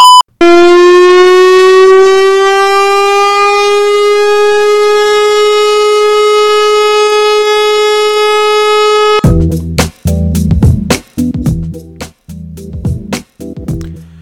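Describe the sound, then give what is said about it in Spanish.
A giant horn as big as a truck, fused with the truck it is mounted on and used by China in its conflict with India, blares one long, loud, brassy note that creeps slightly upward in pitch for about nine seconds, then gives way to choppy bursts and sharp clicks. “Esto que veis es un camión bocina, una bocina tan grande como un camión, bueno, es una mezcla, va fusionado.”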